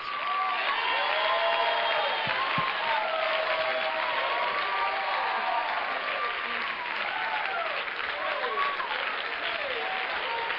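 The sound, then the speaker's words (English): An audience applauds steadily and loudly, dense clapping filling the whole stretch, with rising and falling whoops and cheers riding over it throughout. “If you've got any energy left, and we've been clapping a lot tonight, but can you all together with me just clap your hands unto the Lord?”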